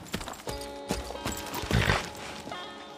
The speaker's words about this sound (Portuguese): E do meio dessa construção sai um, um homem num cavalo, lentamente se aproximando de vocês.